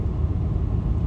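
A steady, low car engine rumble drones on while driving, loud and even throughout, with no voices or other sounds over it.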